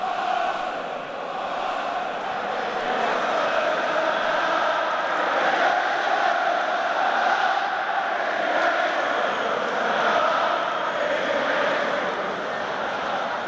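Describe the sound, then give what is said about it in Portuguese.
A large crowd of Arsenal fans at Tottenham's stadium on White Hart Lane chants together in a dense, steady roar that stays loud and unbroken for about thirteen seconds, with no single voice standing out. “E a torcida do Arsenal responde”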